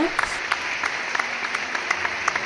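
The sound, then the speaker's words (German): Steady applause from a crowd, a dense wash of clapping with a few sharper individual claps popping out at a quick, irregular rhythm throughout. “Einmal das Applaus. Das haben wir wirklich ne? ganz toll gemacht. Echt Applaus, Leute”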